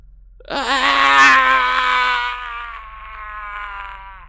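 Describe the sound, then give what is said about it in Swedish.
A long, anguished, tormented wailing cry from down in a basement rises suddenly after a brief pause, strained and harmonic, wavering as it slowly fades over several seconds; one voice, alone, with a faint low hum beneath. “Du hör ett plågat skrik nere ifrån källaren.”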